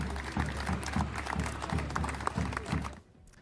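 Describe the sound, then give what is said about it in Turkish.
A protesting crowd of owners and workers of closed businesses claps and bangs on pots and pans at 6:30 in the evening, a steady, rhythmic din of metallic clattering and applause, loud and continuous for about three seconds before cutting off abruptly. “Işıkları kapatıp açarak, davul çalarak, tencerelere, tavalara vurarak, alkışlayarak HES kodu uygulamasıyla mekanlarını açmak istediklerini duyurmaya çalıştılar.”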